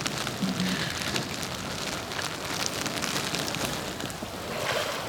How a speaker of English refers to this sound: I'm getting smacked in the face by rain. It is absolutely freezing.